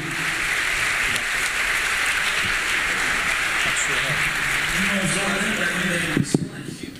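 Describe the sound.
An audience at a church service applauds the name of the Lord Jesus in a steady, dense wash of clapping for about six seconds, with voices calling out beneath it, before the applause cuts off abruptly near the end.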